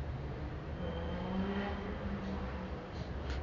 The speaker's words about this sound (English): As a motorcycle revs in the distance.